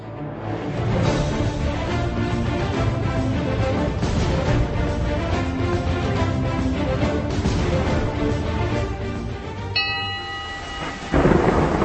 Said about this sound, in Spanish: Soy el tronar de las tormentas.